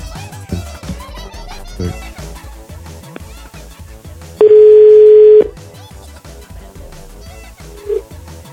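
A telephone ringback tone sounds once as a loud, steady beep lasting about a second over a busy music bed, with a faint hint of the next ring near the end.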